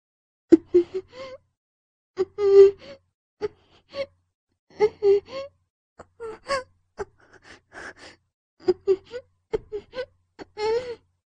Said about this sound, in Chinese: 他被吻住的小嘴，忙着应付他唇舌的纠缠，而无法发出声音，只能呜呜嘤咛。